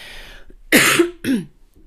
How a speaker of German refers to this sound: An dieser Stelle ab und zu muss ich aber nochmal husten. Das ist das Einzige, was so ein bisschen übrig geblieben ist. Ähm, dieser Husten, der geht nicht weg. Der ist lästig aber ah, der ist auch nicht wirklich dramatisch.